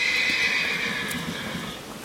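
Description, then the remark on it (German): Trakehner horses, about 1.60 to 1.75 m tall, led on lead ropes toward a gate, walk with hooves clopping in a steady, muffled rhythm, while a long, high whinny rings out over the steps. No one speaks. “Wie kriegen wir die jetzt in Bewegung? Ja, einfach mit Sprechen, kurz anrucken am Führstrick und dann geht's auch schon los Richtung Tor.”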